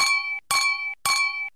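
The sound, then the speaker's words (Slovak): Glasses clink together three times in a steady rhythm, each bright strike ringing out briefly before the next, as in a toast. “Na zdravie, ako sa hovorí.”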